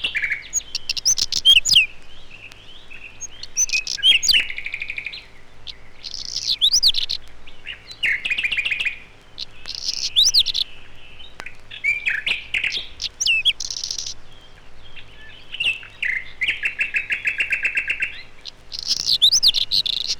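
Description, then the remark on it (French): A whinchat sings alone from a broom bush in short, scratchy, high warbling phrases, each a second or two long, repeated with brief pauses. The song is clear over a quiet background. “ce traquet tarier chante sur un buisson de genêt.”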